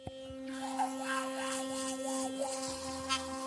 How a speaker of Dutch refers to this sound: Hoor je dat? Zo klinkt tandenpoetsen zoals je gewend bent, maar dan tot 20 keer effectiever. Philips Sonicare verbetert jouw mondhygiëne zonder je poetsroutine te hoeven aanpassen.